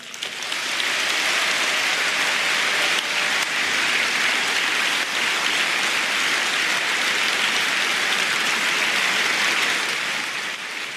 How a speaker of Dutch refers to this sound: er werd geschreeuwd. Ik hoorde volgens mij zelfs iemand roepen: pure dictatuur. Ja. Van Hagen kreeg dus een boelconcert uit de zaal. Want niemand in die zaal vond dit een feest.